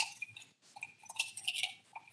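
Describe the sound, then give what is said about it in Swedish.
Paper slips with guests' handwritten questions rattle and rustle inside a jar being shaken before one is drawn, a busy, crisp, papery clatter in quick irregular bursts with a brief pause partway through, no voices. “Gästerna skriver en till två frågor, lägger i en burk, den skakas och nästa gäst drar.”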